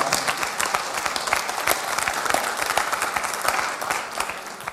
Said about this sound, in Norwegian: Det her, det her er veldig, veldig Ja, du kan godt få lov til å klappe til dette.